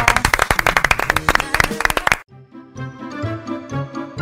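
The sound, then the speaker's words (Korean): A burst of audience clapping, dense rapid claps for about two seconds, stops abruptly, followed by soft tonal music with a gentle melodic rhythm. “여러분들도 그러시길 바라면서 박수면서 네. 마무리하겠습니다.”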